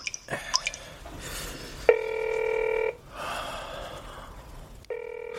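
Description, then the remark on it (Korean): A call is placed to a mobile phone and rings: a steady electronic tone sounds for about a second, pauses, then starts again, preceded by a few light, quick taps. No one speaks. “나는 아내의 주의사항이 떠올라 나무에게 전화를 걸었다.”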